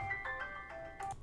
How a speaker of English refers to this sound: That was the alarm. Time to get up.